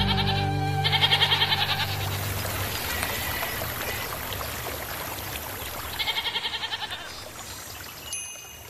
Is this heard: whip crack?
no